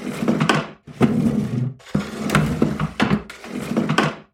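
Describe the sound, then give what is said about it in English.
Chairs dragged and scraped across a wooden floor as people move them into a circle in the middle of the room, in four or five overlapping bursts, with rough grinding scrapes and low knocks, fairly loud, with no talking. “Well, everyone put your chairs in a circle in the middle of the room, and I'll start calling the ghosts.”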